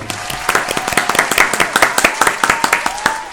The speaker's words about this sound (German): Applaus da an dieser Stelle.